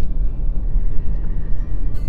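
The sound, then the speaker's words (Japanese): A steady, low road rumble from a car driving along a very narrow road through rice fields beside a river, meeting no other cars, continuous and fairly loud throughout, with no voices. “ああそれにしても全然車とすれ違いませんねすごい細い道を走っているんですが車とすれ違いませんはい国葬地帯を走ってますね先ほど言いましたが川沿いに広がる田んぼを抜けています”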